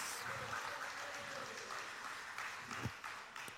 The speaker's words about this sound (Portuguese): Então, glória a Deus, irmãos, por esses homens. Eu fico super feliz. Vamos aplaudir?